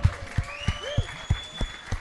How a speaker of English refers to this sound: And keep that round of applause going from newly from California to Melbourne transplant.